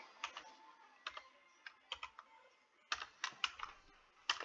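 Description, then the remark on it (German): Keys clack in quick irregular bursts on a French computer keyboard, with short pauses between clusters of strokes and a few harder taps toward the end. “Nein, nein, das ist eine französische Tastatur, die gibt's.”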